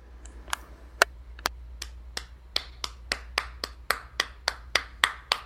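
Sparse applause for the guests at the end of an interview: a dozen or so sharp, crisp handclaps in a steady rhythm that quickens slightly and grows a bit louder, over a low constant hum, with no talking.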